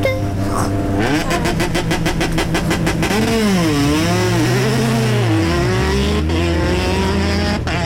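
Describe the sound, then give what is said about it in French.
A rally car engine roars, its pitch climbing and dipping through a series of hard revs and gear changes, loud and continuous from start to finish. The car is a factory car originally built for the World Rally Championship, transformed in safety, performance, running gear, engine and gearbox. “la voiture qu'on a là, c'est un peu une, une voiture d'usine, donc euh, tout a été fait pour le mondial à la base”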